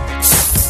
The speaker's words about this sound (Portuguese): Isto é um daqueles chapéus de chuva automáticos de abrir. Chapéu de chuva.